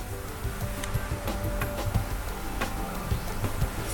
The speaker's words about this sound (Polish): Jeszcze jest jeden dźwięk, Y, który też się tutaj odezwał, y, oznaczający odświeżenie ulubionych. Y, on się nazywa tutaj Favorites Reordered.